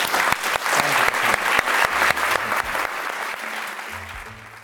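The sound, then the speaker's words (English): A large audience claps steadily and enthusiastically to thank a speaker, a dense wash of applause with faint low tones underneath before it gradually thins toward the end. “Um, so, can we all thank him very much?”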